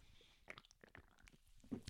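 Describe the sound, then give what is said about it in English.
Someone sips Klarbrunn sparkling water: soft slurps, wet mouth clicks and a gulp or two over a faint carbonated hiss, with no talking. “let me get a slip sip of Klarbrunn”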